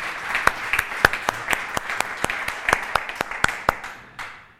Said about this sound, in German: Erst noch, gib mir mal der Band doch mal einen herzlichen Applaus für den tollen Worship, die tolle Anbetung.